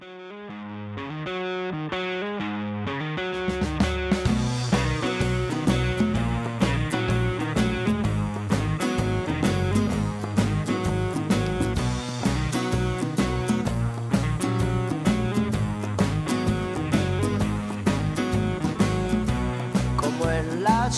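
A song by an Argentine rock band formed around 2010 opens with a few seconds of layered, effects-laden guitar before drums and bass enter around four seconds in, driving a steady full-band groove with distorted tones and no vocals.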